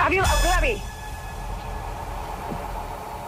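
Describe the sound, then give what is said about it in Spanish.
A loud, harsh quiz timer beep, the final beep of a ten-question general-knowledge round, blares for about half a second at the start, then cuts off, leaving only a quiet hum with faint murmuring. “le has dicho eh, sobre, el pitido final.”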